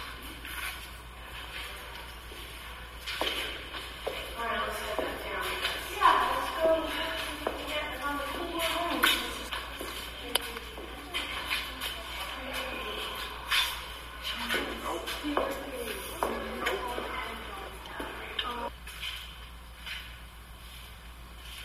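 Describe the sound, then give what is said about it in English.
Shuffling footsteps move irregularly through a noisy, muffled recording, with scraping and knocking sounds over a steady background hiss and indistinct murmuring. “do hear footsteps in there.”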